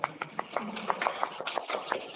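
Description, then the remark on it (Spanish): A group applauds, a steady patter of many overlapping hand claps with sharper individual claps popping out at a fairly quick, uneven rhythm, moderately loud for about two seconds. “Todos un aplauso.”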